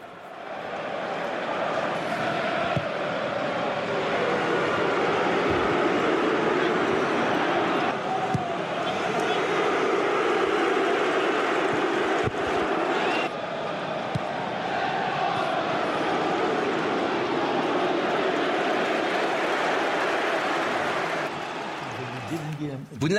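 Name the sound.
stadium crowd whistling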